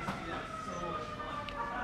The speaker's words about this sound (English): Um, and here come the sirens. They're finally coming to get me, That, that's uh, well timed.